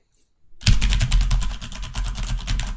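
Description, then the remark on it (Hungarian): Rapid, clattering keystrokes on a Corsair K70 mechanical gaming keyboard in a quiet house start after a brief silence and continue steadily, each click sharp, forming a fast irregular rhythm with no voices. “és akkor így még beleugrottam egy ilyen mechanikus billentyűzetbe,”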